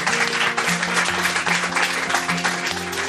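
Studio audience applause, a dense, steady clapping that stays loud throughout, with a musical backing of sustained low notes playing underneath.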